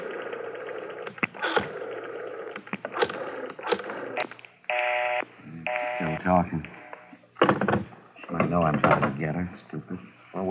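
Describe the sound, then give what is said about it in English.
Touch-tone beeps of a phone number being dialed, with 9 for an outside line, to reach a wife: a short run of steady electronic tones midway, mixed in with voices talking and rustling handling noises. “Dial 9 to get outside”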